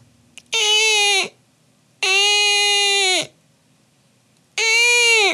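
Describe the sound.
A voice imitates a Jerusalem cricket crying with three long, loud, wailing cries, each held for about a second, separated by short pauses.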